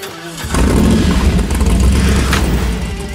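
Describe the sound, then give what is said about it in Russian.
A car engine cranks and catches, then roars into loud, steady revving, the low rumble filling the rest of the moment with no voices. “Заводите.”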